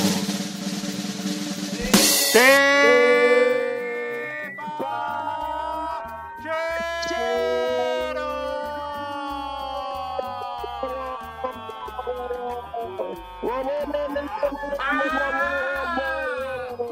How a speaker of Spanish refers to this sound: apaguen esa sirena, coño